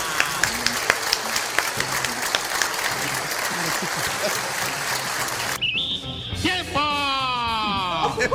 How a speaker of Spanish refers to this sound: Queda aprobada en términos generales y específicos la ley de presupuesto general del Estado y de presupuestos especiales. Felicidades, diputados. Para todos los marachitos, otro aplauso, otro aplauso